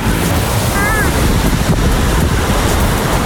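Steady roar of ocean surf washing onto the beach at Noordwijk on a cloudy but dry day, loud and continuous with gusty wind buffeting the microphone, and a brief faint whistle-like tone early on.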